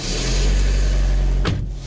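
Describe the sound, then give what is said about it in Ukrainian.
A car engine runs with a steady low rumble and broad road-like noise as a thirty-year-old man gets into his car and drives off, broken near the end by a short sharp click or thump. “Це його перше авто, яке чоловік придбав вже після поранення.”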